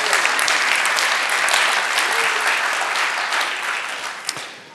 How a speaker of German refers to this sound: du kriegst noch Applaus.